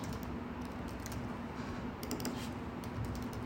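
Fast, continuous typing on a computer keyboard, a steady patter of key clicks with a few brief bursts, over a faint low hum and no talking.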